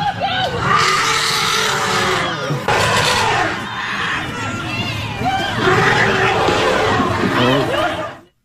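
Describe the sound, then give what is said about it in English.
A crowd of people screaming together as an elephant seems about to trample a little girl, many high overlapping voices shrieking loudly and continuously for several seconds, with a brief dip midway before the shrill din swells again and cuts off. “I can see how the people would be screaming because if you thought you were going to see a cute little girl trampled to death by an elephant, oh, that's horrific.”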